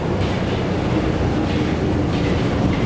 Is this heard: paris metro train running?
yes